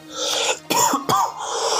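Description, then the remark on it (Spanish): Two sharp coughs in quick succession from a person with a bad cold, the second following about half a second after the first, set against a steady background hiss with no talking. “Joder y aguantar, perdón por la tos que estoy bastante resfriado.”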